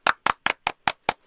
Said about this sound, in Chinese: 来一排掌声！